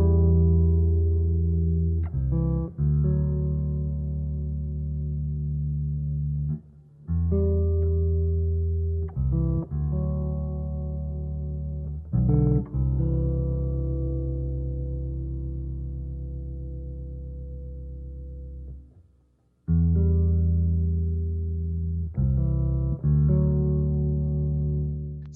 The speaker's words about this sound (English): you can hear that you know that's just one guitar you know or one bass